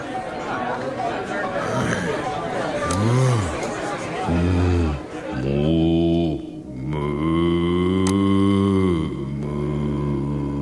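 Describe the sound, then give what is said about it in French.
After a moment of crowd chatter, a man in the toilets of a nightclub lets out loud, deep bellows imitating a bull: two short groaning calls, then a long drawn-out roar. “Euh, bon, enfin, c'est assez incroyable, mais le monsieur qui se trouve dans les toilettes, eh bien, il pousse des meuglements euh, comme un taureau.”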